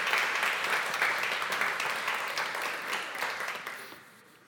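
An audience applauds the people who cooked for them that day, in a dense, steady wash of many hands clapping, holding strong for several seconds before gradually tapering off at the end. No one speaks over it.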